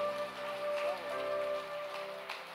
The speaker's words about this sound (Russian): Давайте аплодисменты большие.